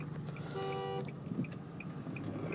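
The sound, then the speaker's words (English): A single half-second car horn beep from a driver speeding past, a steady buzzy tone, sounds over the low rumble of a vehicle, with faint regular ticking continuing throughout. “Who the hell is beeping at me?”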